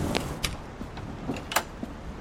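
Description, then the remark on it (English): A house door is pushed shut and locked behind people who have just come in from the porch on a night with lightning, heard as a string of sharp knocks and metallic clicks spread over a couple of seconds, fairly quiet, with no voices. “Roland shut and locked the door behind them”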